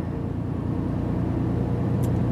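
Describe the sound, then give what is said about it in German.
A heavy truck engine drones steadily, a dense low rumble that holds constant and slightly builds, with road noise beneath and no voices: a Turkish Renault truck with a small cab and 460 horsepower accelerating to overtake another truck where the no-overtaking zone ends. “Zack und drauf aufs Gas und Blinker links und raus.”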